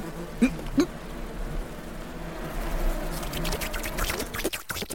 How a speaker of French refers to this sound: Par contre, les offrandes de fruits qui pourrissent ont attiré une nuée de mouches. Bon, c'est pas très hygiénique ces centaines d'insectes qui tournent.